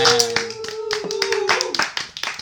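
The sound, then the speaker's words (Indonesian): A burst of hand clapping from several people, rapid and irregular, with a sustained tonal hum running underneath that fades out partway through. “Tepuk tangan dulu dong semuanya”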